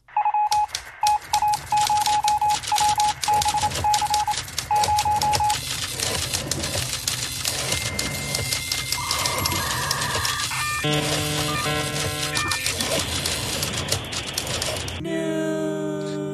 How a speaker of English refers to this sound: That sound started out of a desire to make fun of niche shows that still use typewriter sound effects, and it's become its own thing.